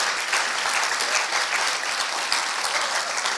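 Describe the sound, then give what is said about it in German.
Sustained audience applause at a church gathering, given for a women's ministry team, fills the whole stretch, a dense, steady wash of many hands clapping at once with no voices breaking through. “ergibt doch einen Applaus für das Team von Sisterhood und Heidi”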